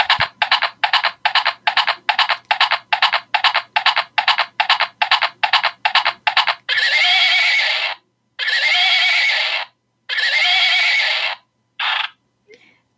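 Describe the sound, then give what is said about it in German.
Electronic sound effect of a pink hobby-horse unicorn toy, a stick with a unicorn head, triggered by pressing its ear: a quick, steady run of galloping hoofbeats for several seconds, then a few long, loud, tinny neighs, with no talking. “Wenn man das Ohr drückt, dann macht es Geräusche.”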